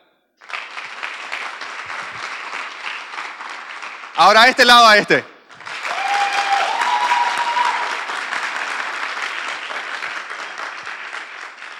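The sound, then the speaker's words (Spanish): An audience at an event claps in a dense, steady burst, one side of the audience applauding the other, stops briefly while a man speaks, then breaks into a second, longer round of applause that swells and gradually thins out. “Este, este lado le va a aplaudir a este, vamos, adelante.”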